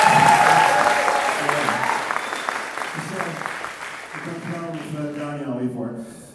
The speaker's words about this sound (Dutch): En ik, weet je, jullie zijn enorm gezegend met dit stel. Dus geef ze even een kleine applaus.